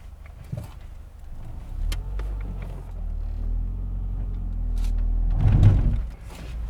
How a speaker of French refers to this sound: La voiture. la voiture.